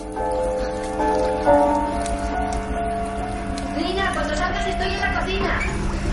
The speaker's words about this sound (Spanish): Tiene sangre. Se limpia con agua.